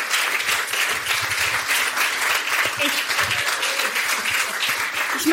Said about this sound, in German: Applaus.